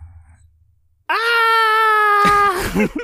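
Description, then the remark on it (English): After a second of near-quiet, an adult lets out a loud, sustained, high-pitched scream imitating a little kid, holding one steady shrill note for over a second before it breaks into ragged, lower yelps. “Now scream like a little kid.”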